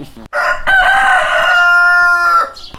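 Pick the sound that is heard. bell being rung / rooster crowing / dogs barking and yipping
rooster crowing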